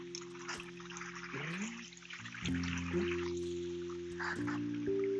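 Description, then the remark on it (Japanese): River water flows beside a lovely riverside path with a steady, broad rushing hiss, with a low humming drone that shifts pitch running beneath it throughout. No one speaks. “わあなんかすごい川沿いのすごい素敵な道に出ました。”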